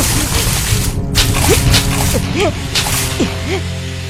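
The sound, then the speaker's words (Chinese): Water from a kettle is poured onto a big fire to put it out, splashing and sloshing in a steady rushing hiss, broken by a few sharp bursts, while thin squeaky chirps and a low hum sound underneath. “达里使劲把布袋推到木架上后，抱来水壶，浇灭了大火。”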